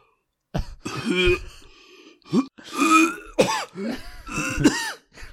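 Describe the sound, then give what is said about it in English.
A person makes exaggerated, deliberately realistic retching, vomiting-style coughs: a series of loud, strained, gagging vocal bursts with groaning tones, with no other talking. “with me uh, trying to do the most realistic, like vomiting cough I can?”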